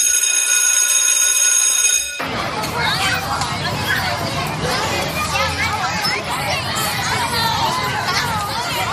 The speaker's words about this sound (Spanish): En la mayoría de los institutos y colegios de España han cambiado este sonido que acabas de escuchar, de jugar en el patio del recreo, por este otro.